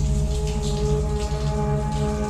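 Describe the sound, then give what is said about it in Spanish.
A steady, dense hiss of shower water running and pattering down without a break onto the back of a woman standing in the shower, fairly loud, with a low continuous hum underneath and no voices. “Cuando está dentro de la ducha con esa gratificante agua que le cae por la espalda”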